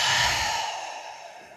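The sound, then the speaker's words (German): A single deep, breathy exhale, fairly loud, with an airy hiss that slowly fades out over about a second and a half, part of a short deep breath in and out. No one speaks. “Wir erstmal atmen wir einmal ganz kurz tief ein und aus.”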